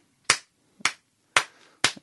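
A short, sparse round of applause given as congratulations: four sharp, loud hand claps at a slow, steady pace, each ringing briefly, with a faint extra clap at the end and no voices.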